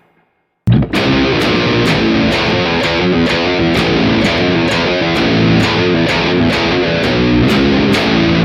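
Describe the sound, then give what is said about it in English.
A loud, heavily distorted electric guitar riff kicks in after a brief silence and repeats in a steady, driving rhythm, with quick legato note changes played as hammer-ons and no voices. “Are you playing a pull off there? There's not a hammer on, right?”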